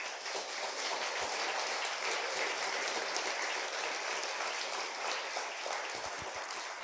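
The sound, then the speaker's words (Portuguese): An audience breaks into sustained applause for the Lord Jesus, a dense, steady wash of many hands clapping at once, loud and even throughout with no voices rising above it. “Aplaudo o Senhor Jesus por isso.”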